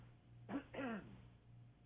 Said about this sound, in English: Excuse me, I have to cough.